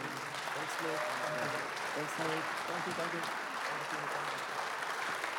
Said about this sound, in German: einen Applaus geben.